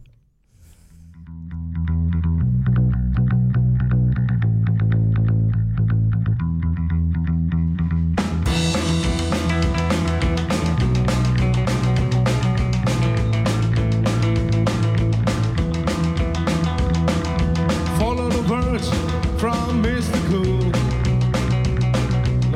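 A rock'n'roll song starts with a bass-heavy groove, then bursts into full band around eight seconds in, with driving drums, loud guitars and a steady upbeat rhythm.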